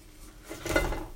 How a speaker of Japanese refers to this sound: 土鍋で炊き上がったご飯はですね、ちょっと焦げがついてますけどね。はい、えっ、ー、と、ご飯を一回ね、しゃもじでこう混ぜてます。まあ、混ぜることによってですねこのご飯が土鍋にこびりつくのを防げ防ぐ役割がありまして